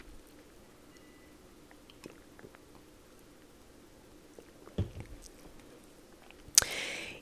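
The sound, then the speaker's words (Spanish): Quiet mouth sounds of someone sipping and swallowing water: soft wet clicks and gulps, then a brief louder rush near the end, with no talking. “Voy a tomar un pelito de agua.”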